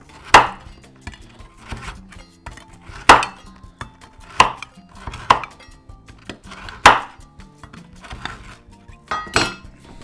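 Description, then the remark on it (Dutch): A large, sharp knife chops a stroopwafel into very small pieces, almost crumbs, to sprinkle into yogurt, about eight sharp knocks on a cutting board at a steady, unhurried pace, with no talking. “En ik ga ja, die stroopwafel echt in hele kleine stukjes snijden.”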